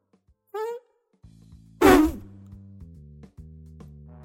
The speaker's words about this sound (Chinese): 皮皮试图停止放屁，但是呢，屁就是停不下来。